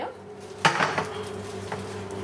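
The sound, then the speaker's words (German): Dishes clatter in a tiny, busy kitchen of a small cookshop at lunchtime: a sharp clang of crockery followed by a few lighter clinks, all over a steady hum from a ventilation fan. “Ich stehe mit der berühmten Wiener Köchin in einer winzigen Küche.”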